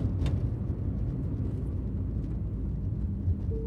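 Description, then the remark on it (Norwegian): Steady low rumble of a black car driving north along a motorway through Los Angeles toward Beverly Hills, a continuous road drone heard from inside the car, with no voices and a faint brief whoosh near the start. “Den svarte bilen dundra nordover på motorveien gjennom Los Angeles i retning Beverly Hills.”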